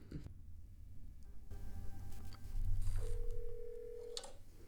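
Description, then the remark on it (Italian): A telephone rings on the line as a guest at a wedding reception calls 911, heard as a steady electronic tone lasting about a second over a low, muffled background hum, with no one speaking yet. “uno di questi infatti decide di chiamare il 911. E adesso ascoltiamo la telefonata.”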